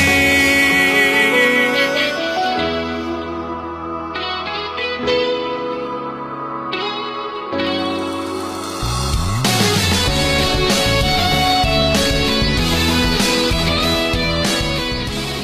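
A rock-styled cover of a pop song plays, with reverb-heavy, effected instruments. After a sparser opening it swells into a fuller, louder band section with no talking over it.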